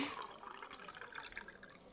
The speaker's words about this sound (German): Ich möchte wieder beginnen, wie immer, indem ich uns etwas Wasser einschenke, um unseren trockenen Mund zu befeuchten.